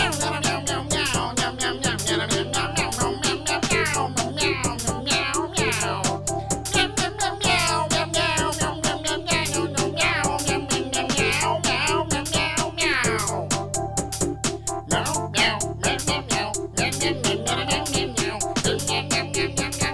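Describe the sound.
A voice sings a solo of repeated cat-like meows, sliding up and down in pitch, over loud, steady music with a driving beat that continues throughout.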